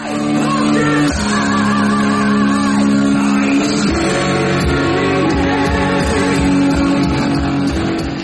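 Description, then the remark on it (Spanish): A power metal singer belts and screams sustained high notes with wavering vibrato over loud, dense band backing with guitar that stays at full volume throughout, heard in a poor-quality recording. “Lo grita todo, lo grita todo, le da igual, está loquísimo este hombre.”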